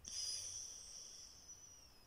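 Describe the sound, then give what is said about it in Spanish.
A steady, airy inhalation through the right nostril, with the left nostril closed: a hissing draw of breath lasting about two seconds and gradually fading, with no talking. “Cambias de posición, tapas fosa nasal izquierda, destapas derecha. Inhalas por la derecha.”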